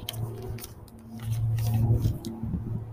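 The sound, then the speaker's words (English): A steady low engine drone from an aircraft (airplane or helicopter) overhead, heard outdoors, swelling louder through the middle before easing slightly, with faint ticking and clicks scattered on top and no one speaking. “Gotta wait till the airplanes pass, or helicopter, whatever it is.”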